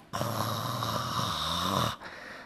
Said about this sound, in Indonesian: udah bobo udah ngorok.